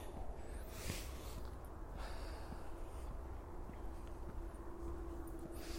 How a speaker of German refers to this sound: Und davor schnaufe ich nochmal kurz aus. Ich hoffe, das ist okay.